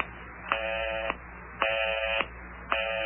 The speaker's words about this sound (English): Is that the number you're dialing there? Yeah. But I keep getting that busy signal.